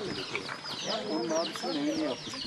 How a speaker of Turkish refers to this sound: Bir tavuk da selin taşıdığı çamur ve ağaç parçalarının arasından kurtardığı yavrularını topladı, sırtında taşıdı.